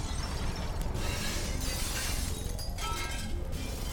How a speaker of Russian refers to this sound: Хоть из-за густого тумана пожар отсюда не был виден, но гул от пламени и разлетающихся стекол был слышен хорошо.